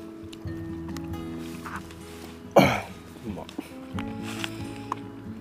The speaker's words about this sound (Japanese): じゃあねちょっと咀嚼音が続いちゃうんで一旦まあこんな感じでっていうので